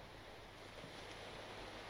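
Steady ocean surf washes continuously onto the shore, a dense, hissing roar of breaking waves with a low rumble beneath, fairly faint and constant with no distinct individual breaks, and no voices.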